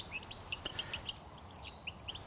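A European goldfinch sings a quick, tinkling stream of high twittering notes and liquid chirps, continuous, with only a faint background hiss and no voices.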